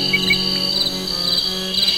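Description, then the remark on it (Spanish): A steady chorus of crickets chirps continuously at night in the countryside, a dense high-pitched trilling that stays at an even, moderate loudness throughout with no voices. “Para los niños, los sonidos de la noche eran músicas en sus oídos. Grillos y ranas se escuchaban en el monte,”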